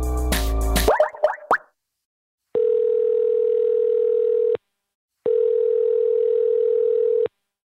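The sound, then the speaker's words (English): A phone call being placed to a man: a steady electronic ringback tone sounds twice, each burst about two seconds long with a pause between, following a short burst of clicky, bubbly noises at the start. No voices are heard. “So I'm going to call him up right now with the hopes of doing just that.”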